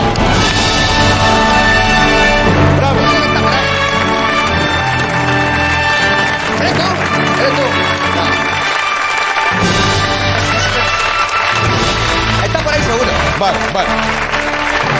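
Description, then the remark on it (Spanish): A show audience applauds a person who said they would come but did not show up. The clapping is steady for about fifteen seconds, a dense, loud wash that blends with music, briefly thinning out around the middle before swelling again. “Un aplauso para él.”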